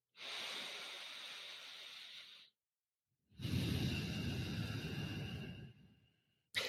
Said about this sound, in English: and you're breathing in and out slowly, and you're focusing on your breath